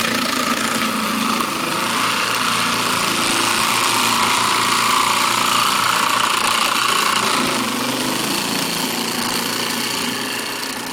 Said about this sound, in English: And with this ice machine, here we go. If it actually decides.